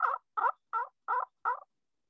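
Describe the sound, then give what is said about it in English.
Five evenly spaced turkey yelps from a friction call, each a short raspy note with a slight downward break, coming in a steady rhythm, clear with silence between. “I want you to listen to this sound.”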